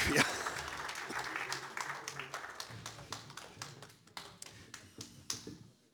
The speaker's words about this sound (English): Can you please put your hands together for them both? could have kept clapping for another 15 seconds while they were making it.